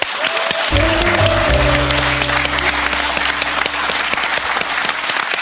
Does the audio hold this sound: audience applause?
yes